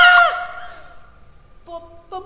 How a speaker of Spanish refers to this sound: ¿Por qué gritan? Porque tenemos mucho miedo.